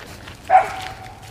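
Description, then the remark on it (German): A single short dog bark rings out in the background in Hannover city centre, over a low murmur of outdoor ambience with no one speaking. “Also vielleicht hört ihr ja die Hunde im Hintergrund nochmal bellen.”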